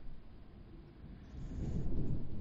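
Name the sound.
thunder rumbling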